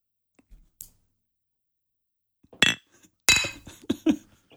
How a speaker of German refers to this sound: Komm mal, lass uns jetzt mal anstoßen hier.